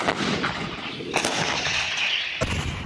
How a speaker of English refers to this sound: battle for Ukraine has turned into a slugfest of dueling artillery.